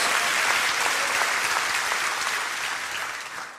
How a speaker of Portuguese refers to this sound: Pode ser mais alto as suas palmas.